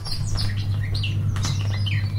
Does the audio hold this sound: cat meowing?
no